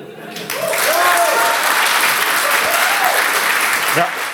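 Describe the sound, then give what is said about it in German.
Steady, loud audience applause with dense clapping that swells in after a brief moment and holds throughout, with a few faint cheering voices rising above the clatter. “Das hat ordentlich Applaus verdient, denke ich auch.”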